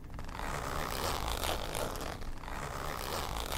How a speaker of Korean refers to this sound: 그리고 잠시 후 지퍼 소리가 나며 닫아놓은 텐트 입구가 열리기 시작했다.